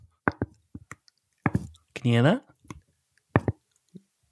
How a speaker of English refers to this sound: If you can hear it, the sound yeah. of my jaw still clicking twice every time I open it due to a friend's roundhouse kick on a trampoline.